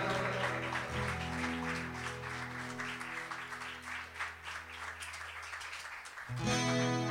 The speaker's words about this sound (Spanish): un fuerte aplauso al Señor, mi hermano.